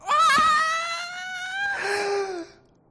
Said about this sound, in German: Stille. Panisches Geschrei.